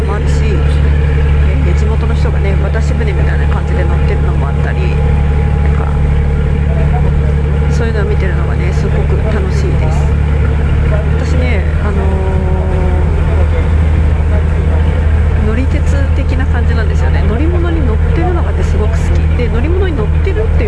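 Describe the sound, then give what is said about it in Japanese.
A boat engine on a backwater canal in a waterside region where many tourist boats come and go drones steadily for the whole stretch, a loud, unbroken low rumble, with faint voices occasionally rising in the background. “で水郷地帯なのでたくさんねいろんなボートが行き交ってるんですよね観光客向け”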